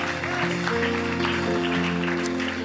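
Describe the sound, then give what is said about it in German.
Audience applause for someone who has just raised a hand as a sign of wanting to come to know Jesus, a steady wash of clapping lasting the whole stretch, mixed with sustained keyboard or organ chords playing underneath. “Herr, lass uns dir nochmal einen Applaus geben.”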